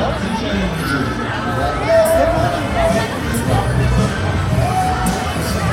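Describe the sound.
Dense crowd noise at a Kirmes funfair, with a steady wash of overlapping voices, occasional shouts and cheers, and bursts of children's yelling over a constant low rumble.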